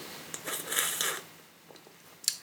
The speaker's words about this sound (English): Sorry, I take a little sip of my drink.